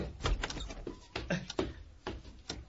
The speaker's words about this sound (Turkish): Eh, kapıyı açayım polis bey.